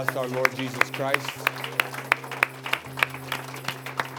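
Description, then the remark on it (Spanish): An audience applauds for the Lord Jesus Christ with sharp, steady, rhythmic claps about three per second, over a sustained low keyboard tone, with a voice rising briefly near the start. “Vamos darle un aplauso a nuestro Señor Jesucristo.”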